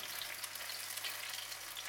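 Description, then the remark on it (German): Potato pancake batter, a large tablespoonful dropped in and pressed flat, sizzles steadily in a frying pan, a dense, continuous crackling hiss at moderate volume, with no one speaking. “So, das heißt, wir nehmen da jetzt so ein ich nehme so einen gro guten großen Esslöffel, hau den rein und dann drücke ich den platt.”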